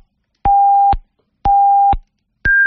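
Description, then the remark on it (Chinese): Hourly time signal beeps on a Chinese radio station marking 20:00 Beijing time: two steady mid-pitched tones, each about half a second long and a second apart, then a third, higher-pitched tone, loud and clear with no voices. “你别着急，来，接下来是整点报时，稍后整点报时回来继续来聊这个话题，别撂电话啊。”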